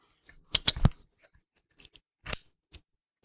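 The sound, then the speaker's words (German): Sharp mechanical clicks from a shoe's click closure system being opened and shut as a foot is slipped in: a quick burst of three or four snaps, a pause, then two more separate clicks, crisp with no talking. “Klicksystem auf, Fuß rein, Klicksystem zu,”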